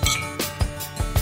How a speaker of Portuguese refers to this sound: Assim, vamos brindar de novo, que a gente vamos começou lá. a beber sem brindar. Saúde! Saúde.